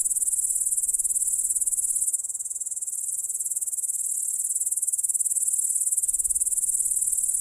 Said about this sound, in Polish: Sygnały, jakie wydają, są dwojakiego rodzaju. Jeden jest zaproszeniem dla samicy, a drugi ma za zadanie odstraszać rywali. Samice świerszczy natomiast potrafią precyzyjnie rozpoznawać dźwięki osobników z ich konkretnego gatunku